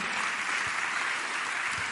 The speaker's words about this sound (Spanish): Entonces yo le voy a pedir ahora sí que le dé un fuerte aplauso al Señor, pero con gozo, con alegría, con ánimo, con agradecimiento.